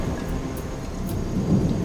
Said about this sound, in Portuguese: A chuva que deixa a vegetação ainda mais verde.